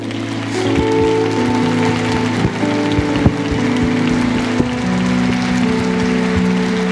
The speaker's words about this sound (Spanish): Y yo quiero que les den un aplauso, por favor.